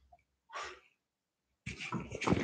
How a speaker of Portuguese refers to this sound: Eu derrubei água no microfone. Vocês estão me ouvindo? Vocês escutaram água, gente?